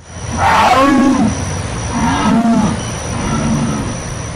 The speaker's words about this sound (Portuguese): Então, a onça subiu numa pedra, estufou o peito e lançou aos ares o seu urro mais sinistro e desafiador.